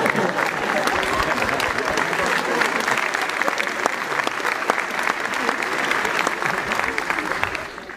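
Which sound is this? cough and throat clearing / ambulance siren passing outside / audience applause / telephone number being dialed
audience applause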